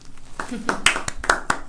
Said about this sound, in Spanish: Aquí todo el público aplaude y con esto nos vamos a ir a un corte comercial.